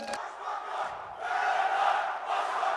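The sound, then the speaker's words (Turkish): A large crowd at an election campaign rally shouts and chants together in a loud, sustained roar that swells briefly, dips for a moment, then surges again, with no single voice standing out. “Öyle bağırmakla olmaz.”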